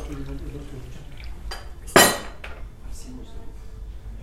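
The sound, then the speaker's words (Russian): A glass clinks sharply once against a hard surface as someone drinks water, bright, with a couple of softer knocks around it over a low background murmur. “Дерну-ка я водички.”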